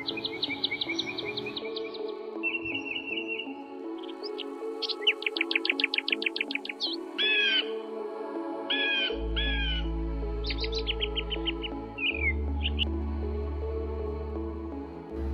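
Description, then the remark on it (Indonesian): Birds chirp and trill in quick bursts, with a crow cawing among them. The calls sound clear over a low background rumble, and no one speaks. “Kita tentu sudah biasa melihat burung.”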